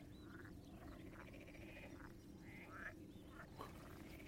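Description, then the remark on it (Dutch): A chorus of frogs croaks steadily in a marsh, many overlapping rhythmic calls forming a dense, continuous din with no one speaking. “De kikkers die gaan er even Die, kikkers gaan los? Die gaan echt los.”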